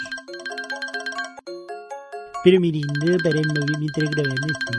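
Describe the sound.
A mobile phone rings during a recording with a bright, repeating electronic melody that carries on throughout, and partway through a person starts talking over the ringtone.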